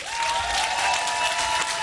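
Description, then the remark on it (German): Steady, dense audience applause for the hosts at the Hemingways, filling the whole moment, a broad wash of many hands clapping at once with no single claps standing out and no voices over it. “Ist leider, das ist jetzt leider in dem tosenden Applaus untergegangen.”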